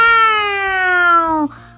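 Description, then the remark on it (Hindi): A single long, loud voiced caw, a person imitating a crow, held for about a second and a half with pitch sliding slightly downward before it cuts off abruptly. “फिर वो कौआ खुशी से उछलते हुए कहता है मैं हूँ कौआ करता हूँ कैव”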